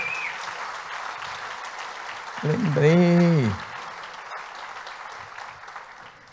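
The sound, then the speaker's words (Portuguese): An audience applauding steadily for Jesus during a church sermon, a dense crackling wash of many clapping hands that runs the whole time, with a brief loud voice calling out over it midway. “É para Jesus, aplauda para valer.”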